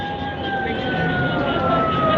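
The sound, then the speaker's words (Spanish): A siren wails continuously from the megaphone of a vehicle that is neither a police nor an emergency vehicle, steady and fairly loud with a slightly tinny tone, over a broad rumble of street and engine noise. “no es, es simplemente un vehículo que está eh, que está haciendo haciendo el ruido de la sirena con un megáfono no es ningún vehículo policial ni ningún vehículo de emergencia”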